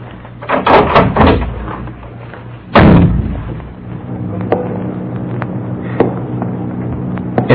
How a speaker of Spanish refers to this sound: Resueltamente se dirigió a la puerta de aquella casa, empujándola y penetrando familiarmente.